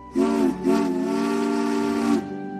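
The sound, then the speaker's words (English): The steam whistle of Caitlin, a sleek, streamlined purple engine, gives two loud blasts, a short toot followed by a long sustained one, its bright harmonic tone wrapped in hissing steam. No one speaks. “Caitlin is very fast and has a whistle that sounds like this.”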